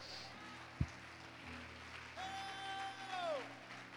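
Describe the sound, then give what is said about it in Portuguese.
A church audience applauds the Lord in worship, a steady, dense wash of clapping, with a single thump early on and a long, high whistling tone that holds and then slides downward near the end. “Aplauda o Senhor nessa igreja, adore.”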